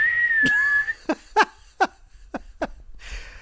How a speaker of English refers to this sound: I would like you to incorporate the S whistle, the Felicia Felicia whistle into this segment of the podcast